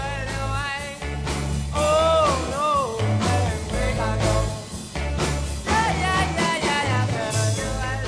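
A 1963 rock song recording plays loud and steady, with a gliding sung vocal line over a thumping bass and driving drums that never drop out.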